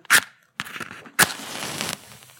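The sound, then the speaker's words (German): A match is struck three times, with sharp scraping rasps, the last catching into a brief fizzing flare that hisses for under a second. Fairly loud, with no talking. “Während ich hier noch, ihr seht es nicht, aber ihr, hört, ihr könnt es natürlich sofort erraten hier, ein Feuer, äh Quatsch, ein Streichholz anmache.”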